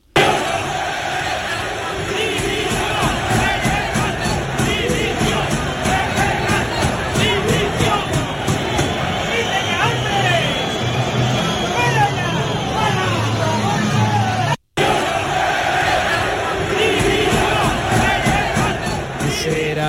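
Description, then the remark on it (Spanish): A large football stadium crowd chants and roars continuously just after the end of the match, heard from the stands, loud and dense, with many voices shouting together throughout; a brief cut interrupts it near the end before the chanting resumes. “Este sonido es justo al finalizar el partido. Se escucha claramente desde la grada, mirando al palco, mirando a Pepe Castro, lo que le dice José María del Nido a Pepe Castro.”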